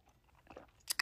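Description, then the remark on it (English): Someone sips white wine, a Verdi bought at Kroger: a soft rustle, then two short, sharp wet slurps in quick succession near the end, with no talking. “I gotta take a sip of this wine real quick, y'all.”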